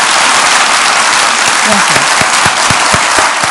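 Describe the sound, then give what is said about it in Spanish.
Loud, dense applause from an audience, a steady wash of many hands clapping throughout, with a few low voice-like sounds showing through near the end; an applause of thanks, respect and affection closing a conversation. “Y yo creo que la mejor manera de cerrarla es con un aplauso de agradecimiento, de respeto y de cariño.”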